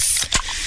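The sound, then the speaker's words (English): A Pepsi soda can cracks open with a single sharp pop, followed by a steady fizzing hiss of carbonation that carries on to the end. No one speaks. “Oh, yeah, that's the sound of a freshly opened fizz filled Pepsi.”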